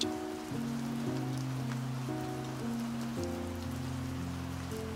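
Steady rain pours with an even, hissing patter that never lets up, while soft sustained musical tones drift beneath it. No one speaks.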